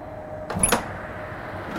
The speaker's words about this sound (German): Man sieht ja auch verschiedene Warnhinweise, weil wir eben bei sehr tiefen Temperaturen natürlich nicht mehr hier hineingehen dürfen. Aber da es heute sehr warm ist, kann ich mal kurz die Tür öffnen.